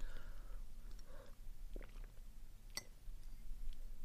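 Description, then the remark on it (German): Three quiet gulps of water being swallowed, spaced about a second apart, with soft wet mouth and throat sounds between them and no talking. “Ich nehme mal kurz einen Schluck Wasser, Moment.”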